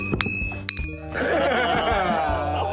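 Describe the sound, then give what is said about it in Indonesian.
A few sharp clinks of glass alcohol bottles knocking together, one leaving a brief ringing tone, followed by a louder stretch of overlapping voices and laughter. “Jadi kita take ini ditemani oleh botol-botol alkohol kali ini. Ya. Asik. Dibungin dulu dong.”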